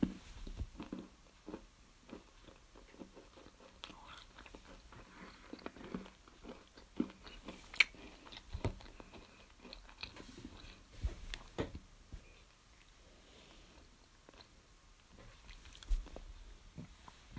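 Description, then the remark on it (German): Crunchy chewing of crisp chocolate flakes, with irregular sharp crackling bites and mouth sounds continuing steadily, no talking, fairly quiet overall with a few louder crunches. “Knusperflocken habe ich auch nicht mehr. Ich habe noch zwei. Mmh, lecker.”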